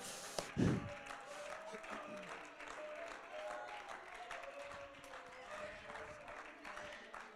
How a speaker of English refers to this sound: Hallelujah. Hallelujah. Let's give the Lord a good hand clap of praise tonight.